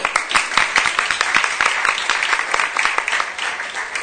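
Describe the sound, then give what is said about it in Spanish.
Steady applause from an audience for a correct quiz answer, a dense crackle of many hands clapping at once with sharp individual claps poking through, sustained at an even, fairly loud level for about four seconds. “Muy bien. Correcto. Un aplauso.”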